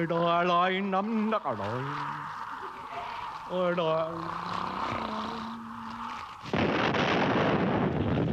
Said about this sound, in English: Oh look at that not a little fuse I will light that not a little fuse on the cannon Light up that not a fuse